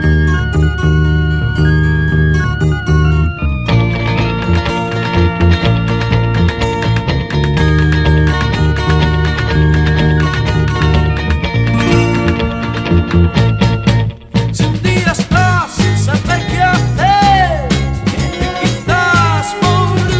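A 1960s Spanish pop song plays loud and continuous, with a full band sound and steady beat, briefly dropping out for an instant before carrying on.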